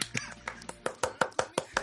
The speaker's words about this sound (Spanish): ¡Aplausos ahora, ¡Aplausos!